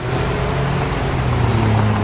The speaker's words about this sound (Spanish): El coche se aleja del edificio.